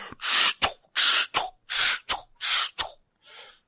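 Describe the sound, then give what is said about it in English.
A voice mimics a wargaming robot moving: four breathy hissing bursts, each capped by a sharp clicking snap, in a steady mechanical rhythm, ending with a softer trailing hiss. “Every time my robots moved, I was going.”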